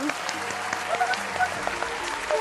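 A crowd claps steadily for a couple of seconds, a dense, even patter of many hands with a few faint voices and a brief whoop mixed in.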